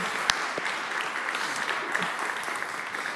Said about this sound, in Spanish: Así que si eres nuevo, este aplauso es para ti. Ayúdame a recibirte.